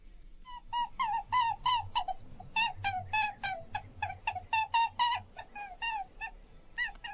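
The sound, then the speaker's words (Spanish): A recording of a rabbit played on the radio: sharp, high squeaks repeat in quick, uneven bursts, several per second, for about seven seconds, over a low background rumble. No one speaks. “Venga el conejo original.”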